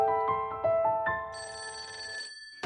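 A telephone rings with a bright electronic warble, a few quick repeated pulses of stacked tones, then a sustained higher ringing note that cuts off abruptly. No one speaks.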